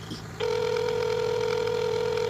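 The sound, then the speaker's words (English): A steady, fairly loud electronic telephone tone starts abruptly after a brief moment of quiet and holds without pause: a little wicker cricket phone ringing. “It's ringing.”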